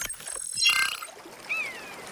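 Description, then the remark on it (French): Water of a river in nature, in the Orbiel valley near Carcassonne, France, rushes and splashes steadily outdoors, loudest early on, with a brief bird chirp rising above the flow near the end. No one speaks. “Euh, on est dans la nature, il y a une rivière, c'est très joli, mais on est où exactement C'est dans la vallée de l'Orbiel.”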